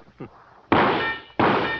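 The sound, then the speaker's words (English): Two loud gunshots at a shooting gallery duck target, about two thirds of a second apart, each a sharp blast with a bright, ringing metallic tail, after a brief faint voice sound. “You think I hit that duck twice before it sinks?”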